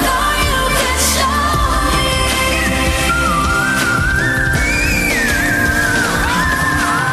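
A singer's piercing whistle-register notes, the highest voice range using the CT muscles, glide and hold at a very high pitch, thin and flute-like, riding over a loud, dense musical backing throughout.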